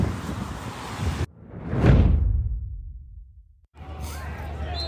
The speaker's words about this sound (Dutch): Maar eh, die wind die waait wel goed in de bek.